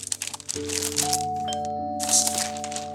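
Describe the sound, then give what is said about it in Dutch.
Paper crinkles and crackles in loud, irregular bursts as a present is wrapped, with a strong rustle near the end, over soft sustained musical tones that begin shortly after the start. “Ik ga even mijn cadeau inpakken.”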